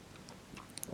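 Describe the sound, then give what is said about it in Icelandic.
A voice mimics a guiro with quick, crisp mouth clicks and scratchy ticks. They are quiet at first, then grow into a denser, louder rasping burst toward the end. No words are spoken. “það er, er bassin og svona guiro”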